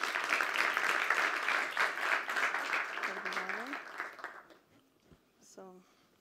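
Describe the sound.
An audience at a business strategy talk applauds a speaker being welcomed, with dense, steady clapping for about four seconds before it fades away, while a voice briefly speaks over the tail end and just after.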